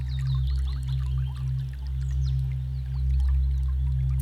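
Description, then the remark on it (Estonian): Water flows and burbles steadily with small splashy trickles, set against a constant deep, humming drone that runs the whole time. No one speaks. “sa jälgid vett.”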